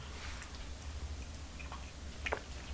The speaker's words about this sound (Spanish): además el café es tremendamente necesario para seguir en el fragor editorial, así que me voy a dar este primer sorbito del día.